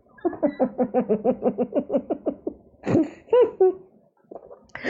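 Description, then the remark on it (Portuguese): Someone coughs and sputters while swallowing water: a quick run of about a dozen rhythmic, choked bursts, then a louder, harsher cough and a few ragged gasps, with no talking. “Você devia ter esperado pelo menos eu engolir a água, caramba.”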